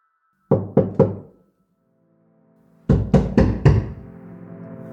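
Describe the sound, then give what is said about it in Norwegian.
Two bursts of a woman knocking on a house door: three quick raps, a pause, then four more firm knocks, with no answer. Loud, with a faint low hum lingering underneath and no voices. “Venninnen banker på, men det er ingen som svarer så hun går bare inn.”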